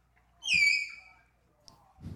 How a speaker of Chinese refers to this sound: 对，没错，我刚刚听到的不是鸟叫声哦，刚刚听到的是马来貘的叫声。来，我们再听一次。